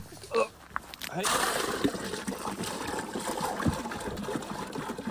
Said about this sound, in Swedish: Nu fyller vi dunkar här. Så att, eh, Lyssna till ljudet av fyllande vatten.